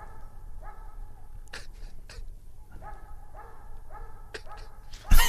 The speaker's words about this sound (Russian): Давайте чуть-чуть послушаем на тишине, как лает собака. Давайте. Нет, собака лает, а, а хозяин не откликается.